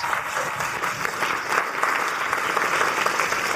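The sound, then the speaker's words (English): A crowd applauds a guest being brought onto the stage, a dense wash of many hands clapping at once that holds at a fairly loud, even level throughout without fading, with no voices standing out. “Huge round of applause.”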